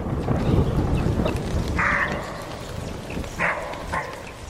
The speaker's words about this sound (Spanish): Son días de tormenta, con el ladrido de un corzo como fondo en el Pinar de los Belgas, en la Sierra de Guadarrama, muy cerca de Rascafría.